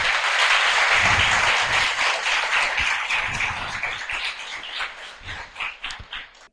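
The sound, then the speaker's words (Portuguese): An audience applauds to welcome first-time visitors in a steady, dense wash of clapping, loud at first and gradually thinning into scattered claps that trail off at the end. “Por favor, sinto-se em casa e queremos saudá-los com um salvo de palmas.”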